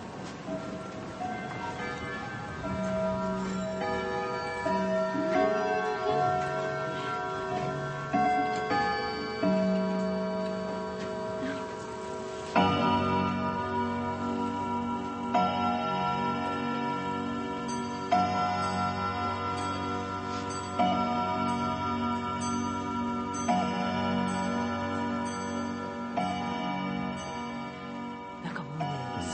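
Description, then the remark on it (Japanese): Several antique French clocks from the 18th and 19th centuries tick steadily while their chimes strike the hour, bell tones starting at slightly different moments because their timekeeping has drifted by seconds, overlapping into a dense, ringing layer; no one speaks. “すごいことになってますいい音ですよね、えー、ほんの2分間ぐらいの間に少しずつ秒数がやっぱずれてるんで、うん、鳴り始めが違うんですが、うん、とにかくピシャッと毎障子になるとこんなふうに音が鳴っていきますんで”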